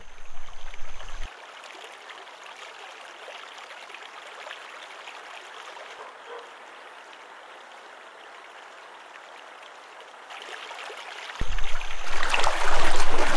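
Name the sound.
flowing river water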